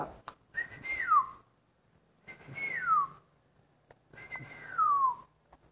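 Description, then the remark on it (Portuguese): A person whistles a little bird's call three times, each a clear high phrase that holds briefly and then slides downward, separated by short pauses. “E um passarinho começou a subir.”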